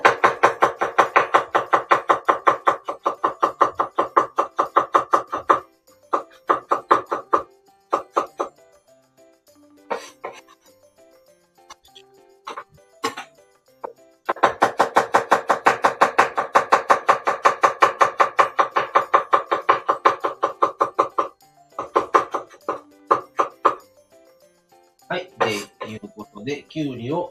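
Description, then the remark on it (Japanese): Fast, steady knife chopping of cucumber on a cutting board, a rapid rattle of dense blade strikes in long bursts broken by brief pauses, loud, with some clattering of kitchenware near the end. “切る音がすごいマシンガンみたい そんなことない。”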